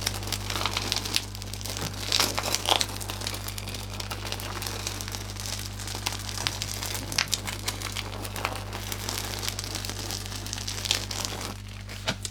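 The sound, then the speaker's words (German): A car tire crunches slowly over a dirty dirt-and-gravel road as the car rolls until it comes to a stop, a gritty crackling with small pops that keeps rolling steadily over a low hum, with no voices. “dass wir so einen Autoreifen auf dreckiger Straße addieren. Mhm. Also wirklich vom Rollen bis zum Stehenbleiben”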